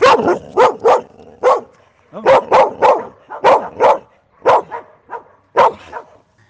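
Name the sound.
dogs barking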